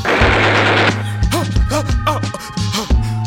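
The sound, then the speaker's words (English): A burst of rapid machine-gun fire crackles loudly at the start, then gives way to a music track with a deep bass line and sliding melodic tones. “Oh no, I think I hear gunshots.”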